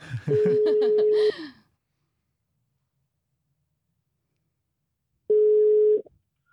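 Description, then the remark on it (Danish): A telephone ringback tone sounds twice, each a steady one-second beep about four seconds apart, with silence between. Brief clattery, breathy noise overlaps the first ring, and the line is clear and fairly loud. “Og øh, nu ringer jeg simpelthen op til øh”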